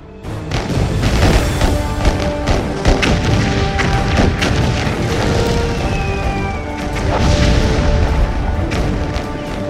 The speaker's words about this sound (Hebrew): שעות אחדות לאחר הכרזת העצמאות, התעוררו תושבי תל אביב למשמע קולות נפץ אדירים. מטוסים מצריים הפציצו את העיר.